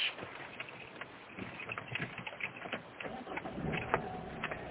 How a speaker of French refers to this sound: Et eh oui, petit bruit de voiture. Un bruit de voiture parce que c'est à peu près les seuls moments où je me retrouve un petit peu tout seul et que je réfléchis.